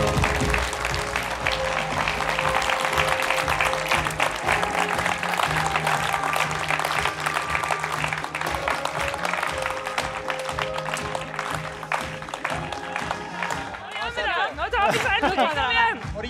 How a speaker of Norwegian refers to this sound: jubla litt